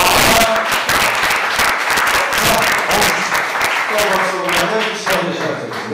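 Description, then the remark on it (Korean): A crowd applauds steadily for several seconds, a dense wash of many hands clapping at once, with scattered voices and cheers mixed in toward the end. “박수 보세요.”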